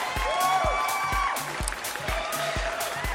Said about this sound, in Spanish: Oigan, por cierto, ya pasamos las 110 mil personas que escuchamos este podcast. ¡Aplausos!